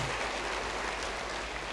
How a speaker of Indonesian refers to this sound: Beri tepuk tangan bagi dia.